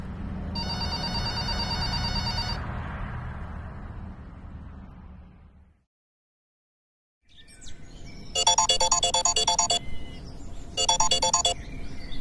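A telephone rings in repeated electronic bursts over a low background rumble, pauses into brief silence, then rings again twice more, clear.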